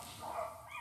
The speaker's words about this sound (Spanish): Disculpen los perros, eh una colonia llena de perros.